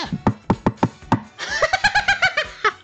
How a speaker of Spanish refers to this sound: Así que si te toca tu puerta